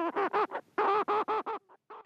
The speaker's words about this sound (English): And of course, here at RNZ, Morning Report closes every day with one of our feathered friends. The Little Shearwater.